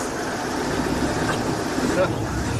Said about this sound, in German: Ich weiß nicht, ob ihr das hören könnt, aber das ist ein Motorengeräusch. Ich halte mal kurz raus.